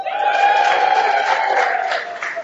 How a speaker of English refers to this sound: Okay, now cheer for that.